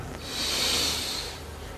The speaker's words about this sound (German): Wir nehmen zusammen, alle zusammen einen tiefen Atemzug und atmen ein.